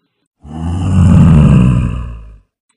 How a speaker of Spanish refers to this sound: se escuchó un terrible rugido.